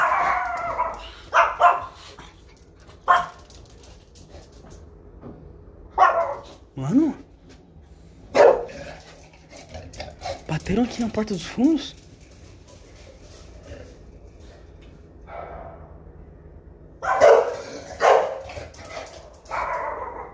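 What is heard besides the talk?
dog barking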